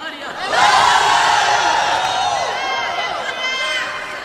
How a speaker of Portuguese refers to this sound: Aleluia! Você pode dar um grito?